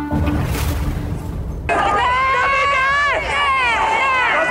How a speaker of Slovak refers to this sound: Práve ste počuli zvuky z brutálneho zásahu polície a špeciálnych jednotiek na Národnej tríde v Prahe v roku 1989.